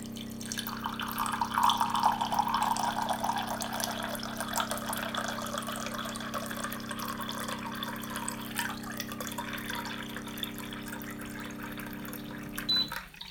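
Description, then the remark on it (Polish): Cold water pours in a steady stream from a water dispenser's spout into a container after a button is pressed, with a constant low mechanical hum underneath, running continuously for several seconds before stopping abruptly near the end. “I nacisnę sobie, żeby woda zimna się zaczęła lać.”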